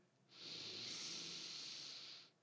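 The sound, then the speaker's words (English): A single long, deep inhale, drawn steadily for about two seconds with an airy, hissing rush before stopping abruptly. No talking. “take a deep breath.”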